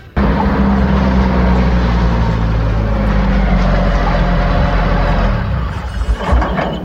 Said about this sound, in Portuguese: Mãe, chegou um carro lá fora. Mas será que é aqui em casa? Ah, mãe, eu acho que é que tá buzinando.